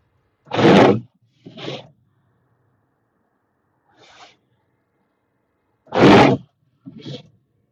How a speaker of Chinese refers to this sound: 雪刮这个玻璃的声音，没这个还不行呢。